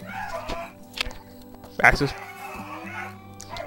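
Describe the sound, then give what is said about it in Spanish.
A dog lets out a single sharp, fairly loud bark partway through at night, over a steady low background hum and some faint scattered noises. “Pero, ¿podría alguien por favor callar a los perros?”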